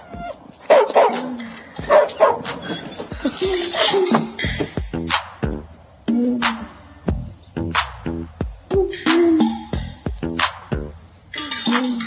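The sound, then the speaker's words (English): A dog barks repeatedly and energetically, sharp loud barks coming in quick bursts with brief gaps, some yipping and whimpering mixed in, and no one speaking. “This is my dog, Ferocious. You know why he got that name if you hear him bark.”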